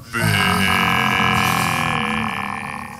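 A loud, sustained gurgling noise from a person's glottis, a rough glottal croak that rolls on for a few seconds, with no words spoken.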